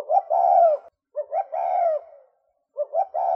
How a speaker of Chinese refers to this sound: 对啊，朱景斑鸠怎么叫啊？ 我们先来听一下。